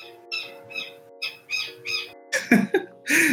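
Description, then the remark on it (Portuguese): A small bird calls several times in quick succession, short bright chirps followed by a few louder, harsher squawking notes at the end, with no one talking. “Jura que saiu um passarinho no, no final.”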